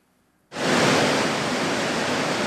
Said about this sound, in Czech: Rozbouřená voda na jezu u Jelení lávky.